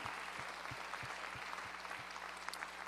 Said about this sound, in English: Come on, can you give Jesus a hand clap of praise today? Amen.